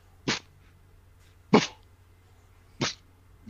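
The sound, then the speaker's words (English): A person mimics a dog barking with three short, sharp, breathy yaps spaced evenly about a second apart, and a fourth just starting as it ends. “And what, just one bark, or do you have to?”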